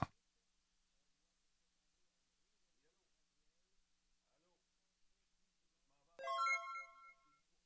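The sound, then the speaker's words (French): After several seconds of near silence, a phone ringtone sounds for an incoming call from the speaker's mother: a short, bright melodic burst of electronic tones lasting about a second, fairly loud. “Bon, ma mère appelle. Un instant.”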